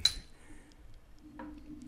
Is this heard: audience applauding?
no